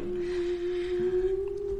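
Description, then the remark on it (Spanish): A howling sound effect: one long, sustained mid-pitched wail that holds almost steady and rises slightly, over a soft airy hiss, with no one talking. “Hace tiempo que no poníamos los aullidos, ¿eh?”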